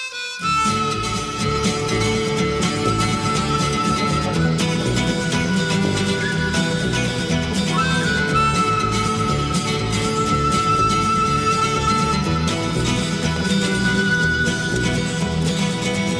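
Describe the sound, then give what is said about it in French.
Music plays loudly and continuously for the whole stretch after a brief moment at the start, with a full, dense instrumental sound and a steady level; nobody speaks over it. “On va écouter un petit peu de musique.”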